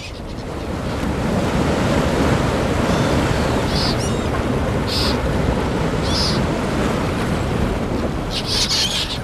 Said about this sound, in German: Aber etwa nach einer Stunde kommt wieder eine riesige Welle und wirft das Boot um.